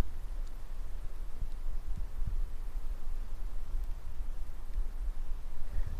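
A steady wash of flowing water fills the scene, with a low, distant rumble of traffic underneath and occasional soft low thumps; no one speaks.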